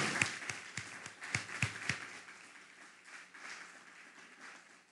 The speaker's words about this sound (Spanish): Dale un fuerte aplauso al Eterno. Pero bien fuerte, que se escuche.